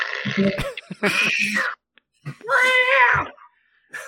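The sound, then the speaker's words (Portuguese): A cat yowls loudly: three drawn-out, wavering wails separated by brief pauses, with a faint short call at the very end and no talking. “O gato tirou o cio tudo o gato pulou na cara dele aqui, ó.”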